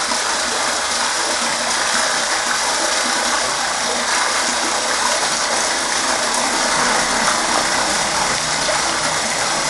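Steady, loud rush of water pouring through a street sewer on a cold day, a dense hissing roar that holds constant for the whole stretch with no pauses and no voices.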